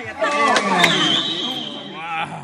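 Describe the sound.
A sharp, hard slap cracks out as a woman slaps her husband outside a cinema, with a smaller smack just before it, amid loud, excited voices of people shouting and talking over each other.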